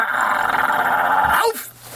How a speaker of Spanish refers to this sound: Tírame, tírame el perro ahí, el de ladrido.